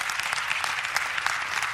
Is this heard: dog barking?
no